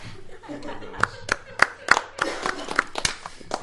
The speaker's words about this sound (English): you don't have to applaud that. That's not a good theme song.